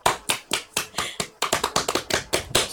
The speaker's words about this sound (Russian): Да, давайте похлопаем сначала.